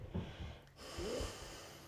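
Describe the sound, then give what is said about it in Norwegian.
A forceful breath pushed out through the left nostril, with the right nostril closed by the right thumb, during pranayama breathing practice: a snorting rush of air lasting about a second, with a brief nasal whistle near the end and no talking. “Og så lukker du ditt høyre nesebor med høyre tommel, og så puster du godt ut gjennom venstre nesebor.”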